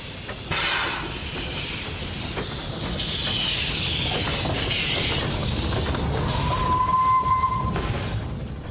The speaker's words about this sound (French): le vaste programme de construction de voies ferrées entamé en 1850 permet aux familles de pouvoir délaisser progressivement les voitures à cocher pour découvrir les joies de la vitesse avec le tout nouveau train à vapeur.